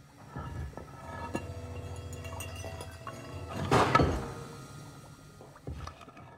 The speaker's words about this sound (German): Wo blubbert's denn? Ja, meistens in Kesseln oder beim Zauberkarte Ja. Oder beim Kochen oder Aber sowas.